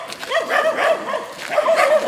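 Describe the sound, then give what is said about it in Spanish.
Several dogs bark and whimper, with high-pitched yips and whines overlapping in a busy, continuous stream of canine noise. “Mira los perritos.”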